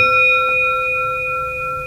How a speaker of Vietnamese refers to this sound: nếu mà quý vị à, nhìn thấy cái à, cái cái dùi chuông này đánh vào cái thành chuông